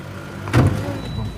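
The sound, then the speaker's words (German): A car door thuds shut with a sharp, solid impact, while a low engine rumble idles steadily underneath before and after it, as a man sets off by car to show the port area. “macht sich auf den Weg zum Auto, um das Hafengelände zu zeigen.”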